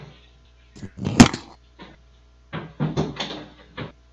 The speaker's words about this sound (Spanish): Y ahora sí abre con sus dos manos esta gran puerta de madera.